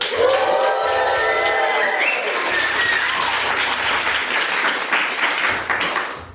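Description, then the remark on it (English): A live audience at a 2023 financial independence event bursts into loud cheering and applause, with whoops and high shouts over dense, steady clapping that stays strong for several seconds before tapering slightly at the end. “We are live here at CampFI Midwest 2023. Make some noise.”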